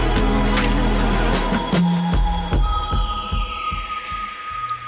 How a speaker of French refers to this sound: Et ce que vous venez d'entendre, c'est son choix musical.